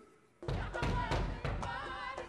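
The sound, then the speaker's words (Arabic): A few dull knocks on a door, loud and irregularly spaced, mixed with a steady bed of blaring radio sound that runs underneath them. “يا أخي ما سمعتش الباب بالسيف ما تسمعش بعد الراديو يشرقح”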